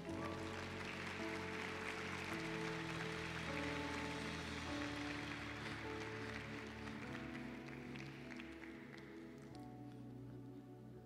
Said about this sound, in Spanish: Amén. Fuerte aplauso al rey.